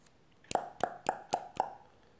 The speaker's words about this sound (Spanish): En ese momento se oye como llaman a la puerta.